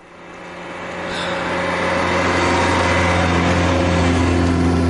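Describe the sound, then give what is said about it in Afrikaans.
A Golf 5 GTI car's engine drones, its hum swelling over the first second or so and then holding loud and steady as the car drives past, with no voices. “Ek sien net wat 'n kar nou hier verby is.”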